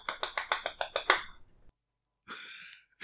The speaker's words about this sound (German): Das war ein Applaus, natürlich.